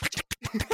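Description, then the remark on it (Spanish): Someone vocally imitates a gas stove igniting: a quick run of about six hissy, clicking bursts, each rough and breathy, packed into under a second. “No sé por qué se me ocurrió, pero cuando tú escuchas mucho trap, te das cuenta que los hi-hats, los platillos, suena como que si estuvieras prendiendo una estufa, literal, ¿va?”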